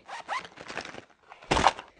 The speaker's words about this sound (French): Bruit de la trousse qui atterrit dans le cartable.